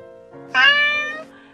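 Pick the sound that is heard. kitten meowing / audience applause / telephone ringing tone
kitten meowing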